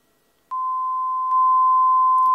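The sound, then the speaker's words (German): A sharp electronic beep tone cuts in abruptly and holds steady and unbroken to the end, loud, with a faint click partway through and no voices. “Du kannst ganz bewusst an einem göttlichen Ziel vorbeigehen und auch dann würde es in deinem Leben piepsen.”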